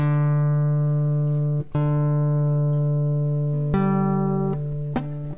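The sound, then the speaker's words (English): A cold, out-of-tune guitar being tuned: a loud, sustained low note is struck again three times, its pitch shifting slightly between strikes. No voices. “Sorry, my guitar's kind of cold and it's really out of tune.”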